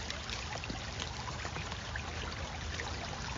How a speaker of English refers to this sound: And you can just listen to the creek all day. I like it a lot.